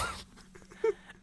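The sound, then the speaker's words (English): A dog, the speaker's dog Zuko, gives a short, sharp bark in the background. It is a single burst that stands out against a quiet, faint hum. “to apologize to any of the listeners if you can hear like a, a dog going crazy in the background.”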